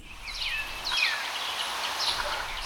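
Several small sparrows chirp in quick, high, sweeping calls over a steady outdoor hiss, not loud, with no voices present, heard on the morning of October 12 from a window of ʻAbdu'l-Bahá's home overlooking the blue sea, olive trees and Mount Carmel.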